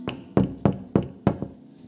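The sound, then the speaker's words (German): A series of about five firm knocks on a wooden door, evenly spaced in a steady rhythm, fairly loud with no voices. “Er klopft an und wenn du bereit bist aufzumachen, dann wird er in diesen Bereich hineinkommen und er wird dir den Wunsch schenken, so zu leben, wie er es möchte.”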